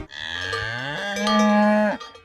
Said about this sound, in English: It's a stampede of cows running through the field.